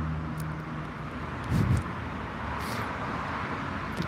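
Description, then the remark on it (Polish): A moped passes by outside, its muffled engine a steady low drone heard through a wall or window, with a brief swell midway before fading back into the background hum. “Nie, tutaj ktoś, wiecie, na motorynce pojechał.”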